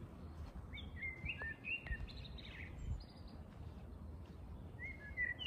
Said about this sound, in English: And of course, as you can hear, I'm uh, outside and there's some bird sounds.